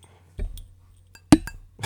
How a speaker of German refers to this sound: haben wir natürlich unsere beiden Gin Tonics bekommen, deswegen ähm, Prost. Prost, cheers.